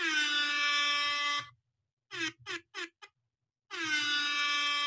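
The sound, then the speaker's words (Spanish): A loud, brassy air horn blares in a long blast, then fires four quick short stabs, then blasts long again, the classic reggaeton DJ horn effect with no talking. “Me encanta ese sonido del reggaetonero.”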